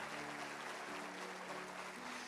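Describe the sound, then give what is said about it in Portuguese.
A large church audience claps steadily and loudly for Jesus in a continuous wash of applause, with sustained low keyboard chords ringing underneath and no one speaking. “Dê uma salva de palmas a Jesus, aleluia!”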